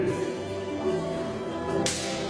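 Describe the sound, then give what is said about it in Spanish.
A single sharp, whip-like slap sound effect cracks suddenly near the end, loud, cutting through a steady, dense background bed that runs throughout. “Eso viene. Viene una cachetada del Espíritu Santo.”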